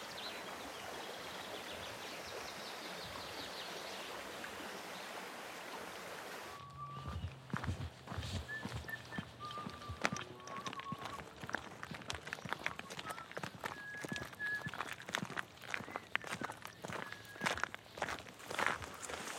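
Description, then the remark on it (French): Steady footsteps crunch along a country path through forest and fields in fine weather, in an even walking rhythm, with birds chirping; before the steps begin, a soft rushing background of a stream and a waterfall fills the air. “On marche, on regarde, on profite.”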